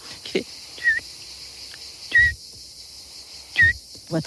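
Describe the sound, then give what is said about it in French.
Three short, pure whistled notes spaced evenly about a second and a half apart, a human voice imitating a scops owl's call, each note preceded by a soft breathy thump. “Son chant ressemble au chant du petit duc, l'oiseau je ne sais pas si j'ose, euh, on, ose.”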